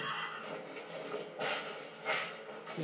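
A horse whinnies amid pounding hooves in a dense, loud movie soundtrack, with two sharp surges rising over a continuous rumbling, clattering background.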